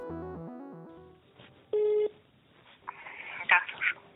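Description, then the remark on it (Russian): A rapid series of telephone keypad tones dialing a number, followed by a single steady ringback tone, then a faint voice answering on the line; a call to an employee of the Central FSB Archive to arrange a visit. “велено позвонить сотруднице архива … и согласовать с ней время своего визита, что я и сделала”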